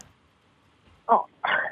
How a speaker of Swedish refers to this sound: Nu fick jag precis, eh, nu, nu, fick jag precis fram vad, vad, det, vad den här paddarten heter. Den heter Paddus Peter, heter den